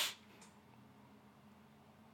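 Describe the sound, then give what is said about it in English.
A single quick, breathy sniffle at the very start, mimicking crying, followed by a faint second intake and then near-silence with a low background hum. “You heard the sniffle.”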